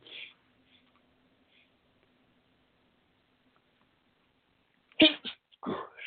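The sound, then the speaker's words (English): After several seconds of near silence, a sudden loud sneeze bursts out, followed by a second short, breathy burst. “Something's been having, I've been sneezing since the election.”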